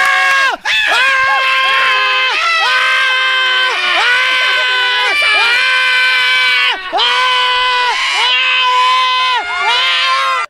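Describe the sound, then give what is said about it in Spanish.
A large crowd in the Metroplex screams loudly and continuously, many high voices overlapping in long, sustained shrieks that rise and fall together, with only brief breaths in the roar over about ten seconds. “Es el grito que tiró todo el Metroplex cuando se enteraron que eran de la chocolata.”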